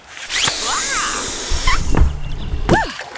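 Inflatable life rafts, like the ones on airplanes, inflating automatically after being pulled out: a loud, steady rush of hissing gas lasting a few seconds, with low rumbling thumps toward the end and a couple of squeaky, chirping tones.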